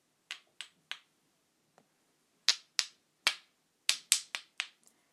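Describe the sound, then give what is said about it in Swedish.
Two threaded metal rods rubbed against each other, giving about eleven sharp, bright metallic clicks in an uneven rhythm, some bunched in quick runs, with short ringing tails and no voices. “Så låter de. Man gnider dem eh, mot varandra tillräckligt länge.”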